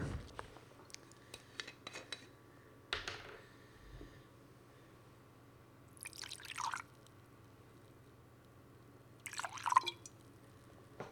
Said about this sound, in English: So, if you ever wondered what a shot sounded like on a broadcast quality microphone, here you go. I'm going to pour it.